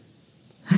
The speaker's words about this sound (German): Geht sie allergielos? Nee, das war, glaube ich, einfach nur Nieser. Ein fröhlicher Nieser.